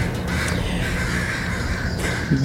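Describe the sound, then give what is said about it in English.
Crows caw loudly and repeatedly in harsh, overlapping calls over a steady outdoor city hum with no one talking, recorded from an apartment balcony in the West End of Vancouver, Canada. “Good lord, those crows are mad.”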